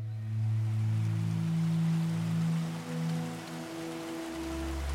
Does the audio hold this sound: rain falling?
yes